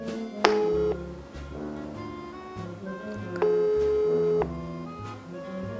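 A telephone ringback tone, heard while someone phones their father, sounds twice, each steady mid-pitched burst lasting about a second with a pause between, over a soft, continuous musical background.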